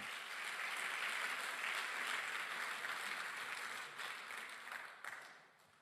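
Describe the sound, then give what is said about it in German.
A church audience from Erlangen and Ansbach applauds God steadily, a dense wash of many hands clapping at once, holding strong for several seconds before gradually thinning and fading out near the end. “Erlangen, Ansbach, kannst du unserem Gott einen Applaus geben?”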